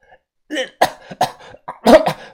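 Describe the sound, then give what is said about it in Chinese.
A person coughs amid a fire with black smoke: a burst of rough, harsh coughing, several loud hacking bursts in an uneven rhythm with brief gaps, strained and breathy with some throaty clearing between them. “我咳嗽的问他。”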